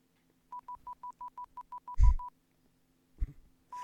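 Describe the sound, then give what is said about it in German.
A rapid, evenly spaced series of short electronic beeps, about a dozen, interrupted by a loud thump, then one more beep after a brief knock. Clear, no talking. “Ich habe nur ganz kurz, wie sie anfängt zu piepen.”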